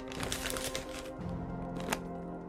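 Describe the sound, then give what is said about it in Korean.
A paper bag full of broken pieces of yeot (Korean taffy) crinkles and rustles for about a second as it is handed over at a festival, then the handling softens, ending with one sharp crisp crackle. Quiet, with no talking. “조각난 엿이 가득한 종이 봉투를 내게 건넸다.”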